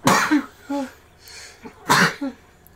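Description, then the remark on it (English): Two loud, sharp sneezes about two seconds apart, each a burst of hissing breath trailing into a short voiced tail, with a quieter breathy sound in between. “bless you, bless you.”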